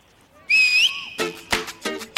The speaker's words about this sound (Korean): 라디오에는 코너가 시작할 때마다 나오는 코드 음악이 있죠. 그 코너의 얼굴, 그 코너의 간판 같은 음악이라고 할 수 있는데요. 이번에는 주간식입니다. 보기가 없어요. 스피드가 관건이고요. 자, 지금 들려드리는 코드 음악은 어떤 코너의 코드인지 구호를 외치고 코너 이름 정확하게 말씀해 주세요. 자, 코드 나갑니다.